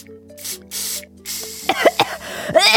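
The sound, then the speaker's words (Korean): Deodorizer sprayed onto clothes: two short hissing bursts, then a longer, louder spray, followed by a few brief squeaky, breathy noises. “일단 급한 대로 이거라도 좀 뿌려야겠다.”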